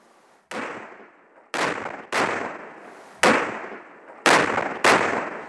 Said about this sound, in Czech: Do 1200 metrů nad mořem těžce přístupným terénem museli bechinští pyrotechnici vynést a pak opatrně nainstalovat 18 náloží, celkem 25 kg plastické trhaviny. Předpolednem stavbu odpálili.